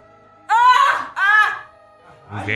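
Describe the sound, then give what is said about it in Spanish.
A voice imitates a woman's strange moaning cries at about 3 in the morning: two drawn-out, wavering wails in quick succession, loud, followed by a brief breathy murmur. “El punto es que de madrugada, como eso de las 3 de la mañana, ella empieza a hacer unos gimios raros.”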